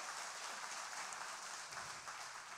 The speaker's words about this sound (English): Can we give God just a great clap today, too?